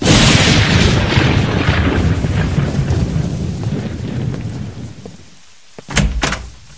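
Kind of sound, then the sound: nature, thunder and rain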